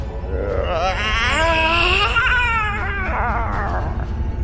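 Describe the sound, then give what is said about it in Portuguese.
A creature lets out a loud, drawn-out scream, a high wavering wail that rises and falls for about three seconds over a steady low rumble. “Uh, eu olho pra Livana, ah, ver é que grito foi esse?”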